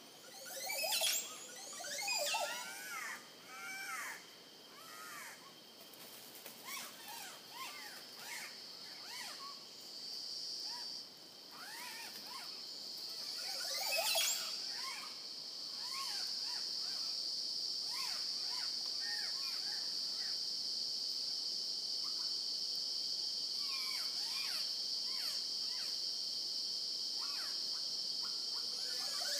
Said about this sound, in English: I'm going to let these Costa Rican birds do the rest